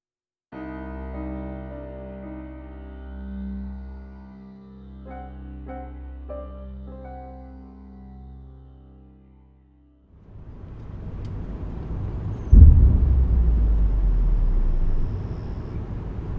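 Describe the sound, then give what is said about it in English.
A steady, low mechanical drone gives way to a rushing roar, then a loud explosion bursts out and leaves a heavy, sustained rumble. “Did you hear that? I think everyone in town did. Uh, no, not the explosion, just before that.”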